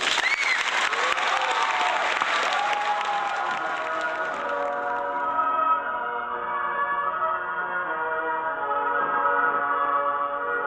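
An audience claps steadily and loudly for several seconds to welcome a singer, then the applause thins out as a sustained melodic instrumental passage rises and carries on alone.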